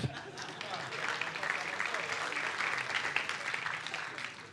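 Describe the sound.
Audience applause fills the whole stretch, a steady wash of many hands clapping at an even, moderate loudness, with a faint murmur of voices mixed in.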